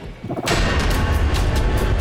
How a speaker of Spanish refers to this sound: trágico estallido de una pipa de gas en Guerrero.